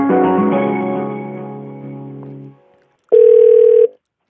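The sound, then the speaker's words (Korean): A telephone line tone hums steadily and slowly fades out, then after a brief silence a single loud, steady beep sounds for under a second, as the Korean radio show Lee Eun-ji's Gayo Gwangjang places a phone call to a listener. No one speaks. “야 요즘 저희 저기 이렇게 뭐 낙농업 하시는 분 뭐 이렇게 화훼 농사 하시는 분이랑 전화 연결도 하면 또 재밌을 것 같거든요. 한번 걸어보자고요.”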